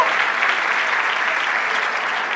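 An audience claps steadily and fairly loudly, a dense wash of many hands with no pauses, heard alone without talking.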